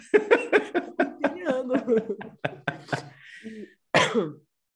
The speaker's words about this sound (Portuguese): Ainda tô tossindo, então vai rolar algumas vezes.